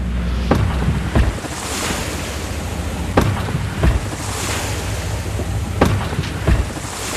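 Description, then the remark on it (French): Water slaps and laps against a boat's hull in irregular bursts, several sharp splashes over a steady wash of wind and sea noise, with no voices. “C'est un peu comme ce bruit du, clapot sur la colle.”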